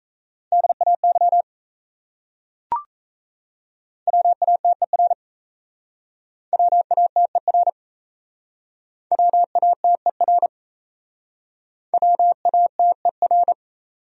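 Fast Morse code at about 28 words per minute, sending common words: five quick bursts of steady mid-pitched beeps, each a short word, separated by pauses, with a single brief click after the first burst.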